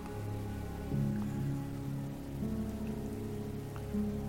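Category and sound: nature, light drizzling rain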